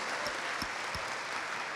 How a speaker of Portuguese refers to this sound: Vamos lá, uma linda salva de palmas.